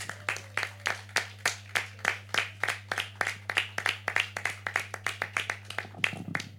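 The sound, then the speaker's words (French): An audience applauds a woman who has just been handed a prize, clapping in a steady, rhythmic beat, about four claps per second for several seconds, fairly loud over a constant low electrical hum. “Elle va pouvoir le montrer au public et puis on va l'applaudir.”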